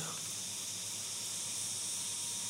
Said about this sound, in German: Hört ihr eigentlich die Grillen zirpen? Ich weiß nicht, hört man das?